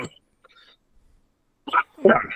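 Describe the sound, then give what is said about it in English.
Two short, harsh coughs after a near-silent pause, the second one louder and rougher, with a brief breathy burst at the very start. “Now it's how far can Howard get into the cheap plugs before I die of coughing”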